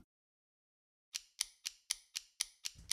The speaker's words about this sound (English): That ticking clock can only mean one thing. We've arrived at the time in the episode where we will spend one minute with our superintendent,